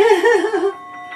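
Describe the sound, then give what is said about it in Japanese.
A Buddhist orin bell, played by two elementary school children, rings with a wavering, pulsing mid tone that fades after a moment, leaving thin higher partials humming on quietly. No one speaks. “小学生ふたりとねいろ演奏（２）おりん”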